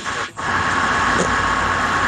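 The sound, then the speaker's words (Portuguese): Rick's truck rumbles steadily past outside, a broad, loud engine drone filling the low and mid range with no pause, heard alone without talk. “Peraí tá passando o caminhão do, do Rick, passou.”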